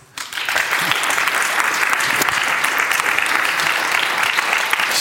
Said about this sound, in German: Herzlichen Applaus.